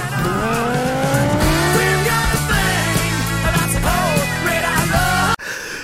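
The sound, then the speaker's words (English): A big truck full of bricks revs its engine loudly, its pitch climbing steadily, while tires squeal in wavering shrieks over the roar, then the noise cuts off abruptly near the end. “That's too bad because I'm driving a fucking huge truck full of bricks.”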